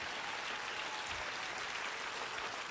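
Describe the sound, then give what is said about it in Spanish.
An audience applauds the Lord steadily, a dense wash of many hands clapping at once with no pauses, sustained and fairly even in loudness throughout, with no voices rising above it. “Yo pienso que usted debería aplaudir mejor al Señor.”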